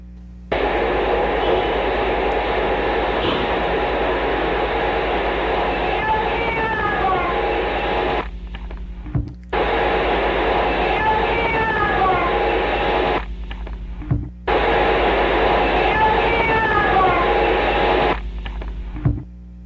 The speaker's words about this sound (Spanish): tenía la mala costumbre, como Alfonso, de grabar todo y él logró grabar esta psicofonía